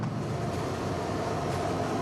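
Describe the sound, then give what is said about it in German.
A train rumbles steadily along the rails, a continuous low roar with faint rhythmic clatter, fairly loud for the whole stretch with no voices. It is a 19-car, 350-metre clinic train travelling across South Africa. “Eine Klinik, die auf Schienen unterwegs ist, kreuz und quer durch Südafrika, dorthin, wo Hilfe am dringendsten gebraucht wird.”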